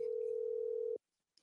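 A phone ringback tone during a live on-air call: one steady, mid-pitched electronic ring lasting about a second, then a pause of silence while the call waits to be answered, with a faint rustle at the end.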